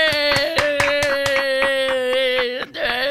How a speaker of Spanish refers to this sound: Un aplauso, un, eh, aplauso. un aplauso. Aplaude, aplaudimos tú y yo solos.